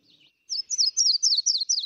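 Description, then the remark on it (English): A hooded warbler sings a clear, high song of rapid repeated slurred notes, bright and fairly loud, preceded by a brief faint chirp, with no voices, heard from a bridge in Big Thicket National Forest, Texas, in springtime around 6:30 to 7 in the morning. “The wood thrush, the hooded warbler,”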